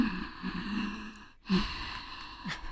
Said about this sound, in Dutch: Dus dan eh, doe ik vaak de ujjayi ademhaling. Ja. Dus dat je een beetje die oceaan Maak het geluid even.